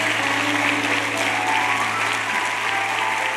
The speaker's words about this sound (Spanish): Y a ti daremos gloria y honra. Denle un aplauso fuerte al Señor. Amén.